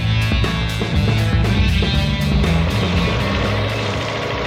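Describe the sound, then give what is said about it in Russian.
Steady, loud helicopter cabin noise: a dense engine roar with low droning tones and a faint rhythmic pulse from the rotor, continuous throughout with no voices. “Мы летим на вертолете”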